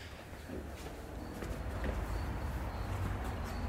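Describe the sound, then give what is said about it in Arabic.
A few scattered hoof clops from horses moving slowly, fairly faint and irregular, set against a steady outdoor rumble and hiss with no talking. “خلينا نروح نشوف الخيول وندش للخيل”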